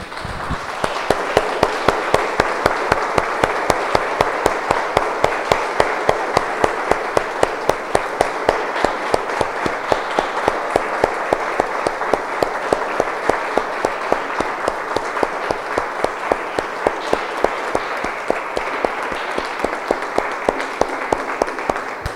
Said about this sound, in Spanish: Damos un aplauso, hermano.